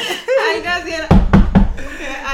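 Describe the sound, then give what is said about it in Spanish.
Three loud, quick knocks on a door in a steady rhythm, with a person talking just before and after them. “¡Mira, la puerta!”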